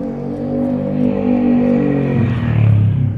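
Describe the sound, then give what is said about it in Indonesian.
Loud, steady engine drone of many motorcycles passing on a busy main road while someone walks along it, with a bike revving and its pitch shifting near the end; no one speaks. “sorry agak berisik gue sambil jalan soalnya jadi di jalan raya nih banyak motor”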